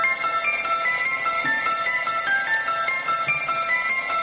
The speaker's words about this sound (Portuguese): cedo hoje, hein? Cedo. Cedo com o nosso maravilhoso despertador.